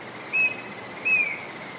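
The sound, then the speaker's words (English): Rainforest ambience in the Andes Mountains of Colombia, along the Anchicaya River: a steady high insect drone and soft hiss, with two short, clear bird whistles about a second apart rising above it. Nobody speaks. “A few square miles of rainforest in the middle of the Andes Mountains in Colombia.”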